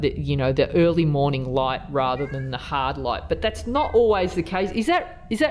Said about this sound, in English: he's meowing about did he not like what i was saying Does he disagree? Oh, or does he want to say something?